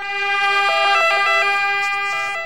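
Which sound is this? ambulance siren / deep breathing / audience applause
ambulance siren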